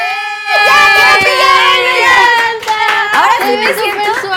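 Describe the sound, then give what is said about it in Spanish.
A small group claps steadily for a few seconds, the applause mixed with excited, high-pitched voices calling out over it; the applause is at a pajama party as a guest puts on her unicorn pajamas. “¡Aplausos para”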